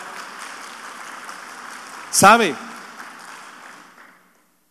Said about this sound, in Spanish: ¿Cuántos pueden darle un gloria a Dios esta noche? Denles aplauso al Señor, por favor.